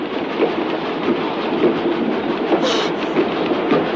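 A moving train rumbles and clatters along the rails in a steady, dense rhythm of repeating clacks, with a brief higher metallic squeal rising partway through. No one speaks.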